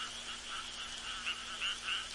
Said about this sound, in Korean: 이렇게 그때부터 비 오는 날이면 어디선가 개굴, 개굴. 청개굴의 구슬픈 울음소리가 들려오기 시작한 거랍니다.